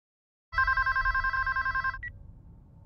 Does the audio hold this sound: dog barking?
no